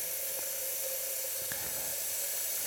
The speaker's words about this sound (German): So, ich hole jetzt ja. Wasser von der Wasserleitung für den Tee.